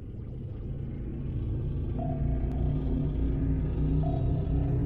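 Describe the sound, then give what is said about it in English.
A deep, steady rumble with low droning tones builds slightly in loudness as a spaceship powers up and takes off from Earth, with no voices present. “What is that loud noise? Oh, uh, we are taking off.”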